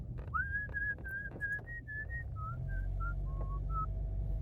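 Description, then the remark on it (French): A person whistles a short tune of a dozen clear, steady notes, first drawing air in and then blowing out, with a soft airy breath noise running underneath. “Ça, c'était aspiration et souffler.”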